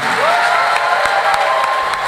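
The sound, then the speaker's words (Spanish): Loud, sustained applause from an audience, offered to God for the life of an evangelist, a dense wash of clapping with scattered sharper claps and faint cheering or whoops mixed in throughout. “con un fuerte aplauso a Dios por la vida de mi amigo, el evangelista, profeta”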